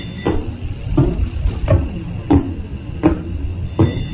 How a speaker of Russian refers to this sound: 1967 году в Кембриджском университете зафиксировали первый пульсар – далекий источник излучения, который проходит через Землю импульсами. Пульсары не излучают на звуковой частоте, однако ученые сделали гамма- и радиоизлучение слышимым для человека.